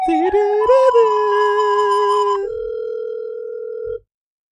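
A telephone ringback tone plays while a call from Vienna to the Rams Fan Shop, an NFL team's store, connects: a steady electronic tone that steps to a slightly different pitch partway through, then cuts off after about four seconds.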